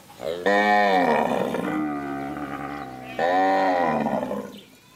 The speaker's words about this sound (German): Die Kühe von Koroto Mugariko fressen sich voll. Sie sind frisch gemolken.